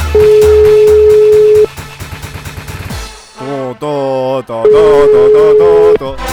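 Tinny, synthesized telephone hold music for calls fills the line, with a steady sustained tone over bouncy pulsing beats, a brief melodic vocal-like passage midway, then the same tone returning. It's loud.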